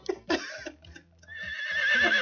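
A horse whinnies: a few short, breathy bursts, then a sustained, high, wavering neigh that grows louder and holds to the end, with no talking over it.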